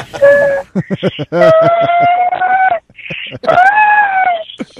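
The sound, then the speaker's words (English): A voice imitates high-pitched, wordless crying: several sustained, wavering whines broken by short choppy sobbing gasps, fairly loud, with no words spoken. “It was, and I just the whole time just making a noise like like you know when you're crying but no words come out.”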